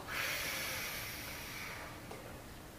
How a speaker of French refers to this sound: On inspire par le ventre.